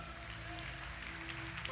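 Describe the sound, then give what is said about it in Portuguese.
An audience applauds the Lord in a steady, dense wash of clapping, with sustained keyboard or organ tones sounding underneath throughout. “Pode aplaudir o Senhor que é santo”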